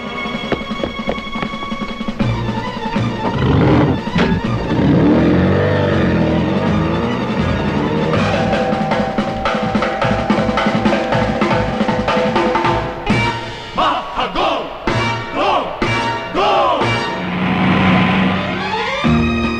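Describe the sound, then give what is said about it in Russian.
A loud, upbeat big-band orchestral jazz theme, the opening of the original Speed Racer anime, played by a large orchestra, with jazzy brass and dense, sustained chords playing continuously for about twenty seconds, with a few punchy accented hits near the end. “Вот, например, так звучал опенинг к оригинальному спидрейсеру.”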